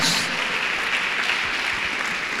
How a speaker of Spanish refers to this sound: A ver, a ver, creo que el aplauso debe ser más fuerte.